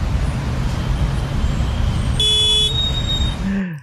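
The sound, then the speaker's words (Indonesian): Heavy traffic in a traffic jam rumbles steadily as a car horn blares once, loud, for about a second before the engine drone fades out. “Ya Allah, macet banget nih.”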